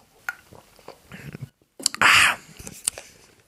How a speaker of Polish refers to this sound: Ja sobie łyknę mojego energetyka